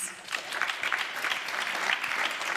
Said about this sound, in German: Wir geben Ihnen doch einen herzlichen Applaus.